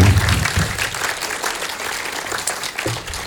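An audience claps steadily for a few seconds for a guest on the show, a dense, even wash of many hands with a low rumble at the start and no voices over it.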